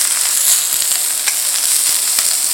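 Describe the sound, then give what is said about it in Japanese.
Bean sprouts being stir-fried in sesame oil in a hot Chinese wok sizzle steadily, a loud, dense hiss with scattered crackles and pops throughout, with no voices. “今もやしを投入したもやしってこれさごま油で今もやし炒めてんだけどこれだけでめちゃめちゃうまそうな匂いするよどうですかこの効果音もこれステレオで録音したら ASMR になるかな”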